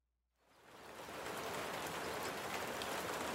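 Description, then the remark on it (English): Steady rain fades in from near silence and settles into a dense, continuous hiss of drops pattering on a surface, moderately loud, with no voices; a rainy afternoon at Holy Cross Secondary School in St. Catharines, a Toronto suburb, the Thursday before Easter weekend, 1992. “It's a rainy afternoon, and class has just been dismissed at Holy Cross Secondary School in the Toronto suburb of St.”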